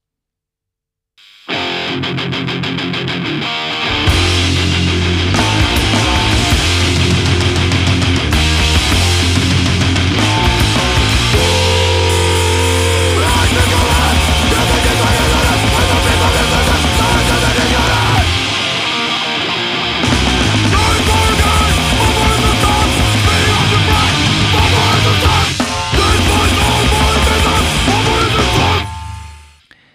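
A loud, dense noise-rock track from a band on the Brno noise scene, from their first recording released in 2020 as a split EP, blasts at full volume, with heavily distorted guitars, pounding drums and thick low-end roaring almost continuously, briefly easing around the middle before surging back in.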